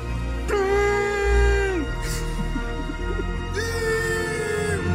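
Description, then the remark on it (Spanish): A voice imitates a tyrannosaurus roar twice: two drawn-out, strained, high-pitched screeching cries, each holding steady before sliding downward, with a short pause between them. “Intento de. dinosaurio. De tiranosaurio.”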